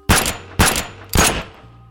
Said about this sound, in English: But then Jerry fired three shots into the ceiling, and that did the trick splendidly.